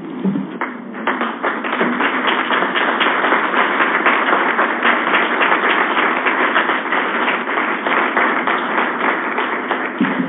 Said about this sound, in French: Euh, bon, on va conclure en se levant et en, applaudissant une dernière fois pour tout ce qui a été fait aujourd'hui.